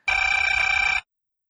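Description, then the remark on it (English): A single telephone ring during an outgoing call, lasting about a second, a bright steady trill with a fast fluttering pulse, heard clearly, then silence. “Let me make this phone call.”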